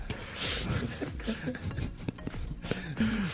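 Heavy, gusty breathing blows straight into a close microphone, a steady rushing hiss that swells and fades in uneven bursts, with a faint voice murmuring near the end.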